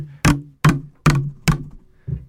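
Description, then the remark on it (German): Five loud knocks and bumps from a microphone being handled while the right microphone is put on, coming at a fairly even pace with short dull thuds and a low boomy ring after each, with no one talking. “Jetzt müssen wir das richtige Mikrofon auftun, ging auch besser.”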